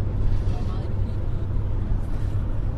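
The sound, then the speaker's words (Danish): Steady low engine rumble and road drone from inside a moving car carrying a DR crew for the TV programme Dagens Danmark, a constant, fairly loud hum that continues evenly throughout without any distinct events. “Vi sidder jo her i øh, en øh, bil med øh, ja, fotografen”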